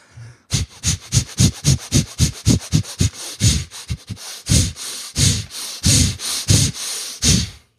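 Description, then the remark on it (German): A person demonstrates chaotic, arrhythmic breathwork, breathing hard and fast through the nose and mouth, forceful sniffing inhales and huffing exhales in a rapid, slightly uneven rhythm, loud with no talking. “Zehn Minuten atmen, volle Kanne. Also es ist atmen, wie du noch nie geatmet hast.”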